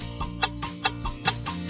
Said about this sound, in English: As usual, players will have 10 seconds to answer each question. A timer sounds like this,